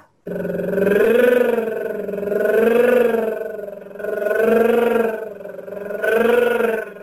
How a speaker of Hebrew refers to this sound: ננסה את זה עם... אה, עם, אה, כן, אותו דבר, עם הליפ טריל, אפשר כן. לעשות את זה אה, כמו, למי חלש לחזק